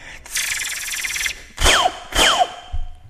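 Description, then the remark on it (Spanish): A voice imitates laser blasts: after a raspy, buzzing hiss, two quick descending 'pew' zaps sweep downward in pitch, fairly loud, with no talking. “Y también este como imitar, no sé, sonidos ambientales, no sé, una gota cuando te truenan los huesos, un pato, el sonido de un láser.”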